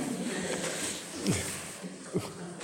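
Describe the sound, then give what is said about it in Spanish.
A bird calls twice with low, soft cooing notes, spaced about a second apart, over a steady background hiss. No one is speaking. “El pájaro está de acuerdo con lo que le estoy diciendo.”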